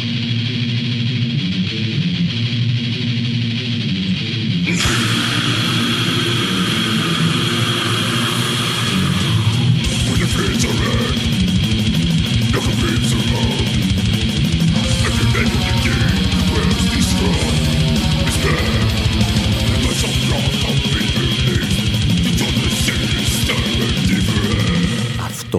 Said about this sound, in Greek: που ακούτε για να έχετε μια εικόνα είναι το πιο μελωδικό κομμάτι death metal που βρήκαμε για την Καρχιδόνα.